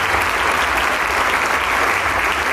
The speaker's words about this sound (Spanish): Sale una vez más al maestro Itan a agradecer. Y el aplauso cesa.